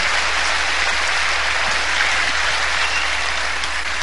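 Loud, sustained applause from an audience, a dense wash of clapping that holds steady for about four seconds with no voices above it.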